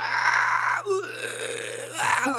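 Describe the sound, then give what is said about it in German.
A single voice mimics screaming heard in the background from behind, with a drawn-out, strained wail, a brief break, then a second rising cry, at moderate loudness with a steady low hum underneath. “sag ich, hörst, ich höre die ganze Zeit mein Schreien hinten, was ist das?”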